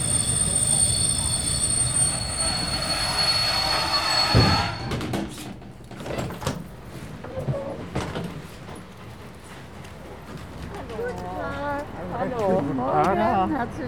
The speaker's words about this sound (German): Sehr geehrte Fahrgäste, wir erreichen jetzt Chemnitz Hauptbahnhof. Dieser Zug endet dort. Wir bitten alle Fahrgäste auszusteigen.